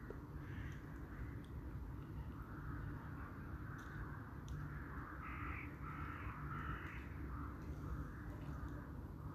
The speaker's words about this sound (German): Vier Krähen ziehen vorbei, schwarze Silhouetten.